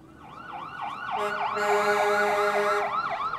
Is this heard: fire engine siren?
yes